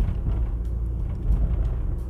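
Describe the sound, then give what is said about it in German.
A steady low rumble inside a car driving home from work from Solingen, Germany, with constant engine and road drone filling the cabin and no speech, the hum holding level throughout. “Und der Kaiser fährt nämlich jetzt von der Arbeit aus Solingen nach Hause.”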